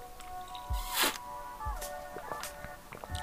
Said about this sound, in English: that was my sound effect of drinking water, even though I wish it, it was coffee.